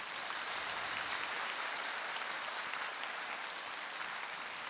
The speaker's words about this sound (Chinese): 啊，你鼓掌是这么鼓的啊？